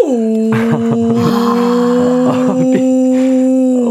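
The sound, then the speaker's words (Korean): A mother whale's long, moaning call as it searches for its calf holds one steady, slightly rising tone for the full stretch, loud, with faint knocking pulses scattered underneath and no voices. “엄마 고래가 아기 예. 고리를 찾는 겁니다. 찾는 음. 소리.”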